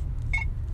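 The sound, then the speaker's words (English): A short electronic notification beep from a walkie-talkie messaging app, a single bright two-tone chirp lasting a fraction of a second over a low steady hum. “That's the sound of Voxer.”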